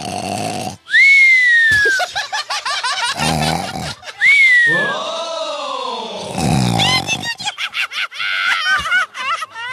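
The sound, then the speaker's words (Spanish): Exaggerated, cartoon-like snoring, presented as tío Melcochita sleeping, plays on its own: loud wheezy inhales, each topped with a high whistling tone, alternate with rough, fluttering exhales in a slow, repeating rhythm. “despierten al tío Melcochita que sigue dormido. Ay, sí, está durmiendo. ¿Escuchan sus ronquidos?”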